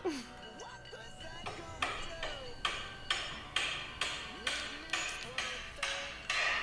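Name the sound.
hammer striking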